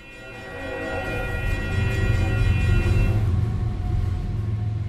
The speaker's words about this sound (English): and bells announcing the train that passes every hour outside Spinello Projects, the art space in a neighborhood known as Little River, Miami's newest art district,